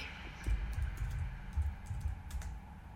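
Someone types steadily on a computer keyboard, a quick run of soft clicks and key taps in an irregular rhythm, with no voices.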